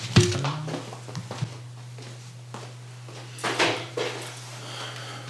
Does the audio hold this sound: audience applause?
no